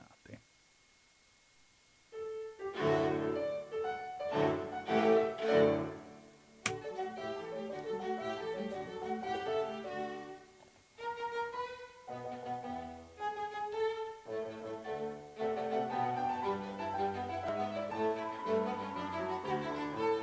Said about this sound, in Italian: Facciamo un altro brevissimo intervallo musicale, vi proponiamo qualcosa, eh, mi pare che sia di Beethoven, così dice la scritta, ma vediamo può essere che sia sbagliata la scritta